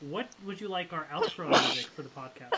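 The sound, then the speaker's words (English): A single sharp, loud sneeze bursts out midway through while people keep talking and laughing around it. “Wow. Bless you, ….”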